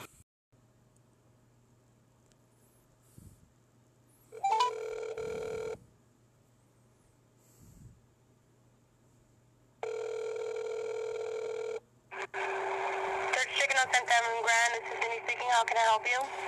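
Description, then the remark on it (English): A phone line hums as a number is dialed, then two long, steady electronic ringback tones sound, each lasting a second or two with a pause between, before talking begins at the end. “So I'm about to dial the number and we're about to get into this reaction.”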